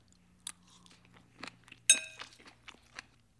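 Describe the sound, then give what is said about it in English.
Crisp salad being chewed: a string of irregular, sharp crunches over a few seconds, with one brighter clink of cutlery against a dish partway through. No one speaks. “This is such a good salad.”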